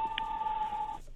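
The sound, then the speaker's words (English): A mobile phone ringtone playing a movie theme sounds: a steady, fairly loud electronic tone holding for about a second, with a brief higher chirp near the start, then cutting off into quiet. “Uh, I think that was my phone.”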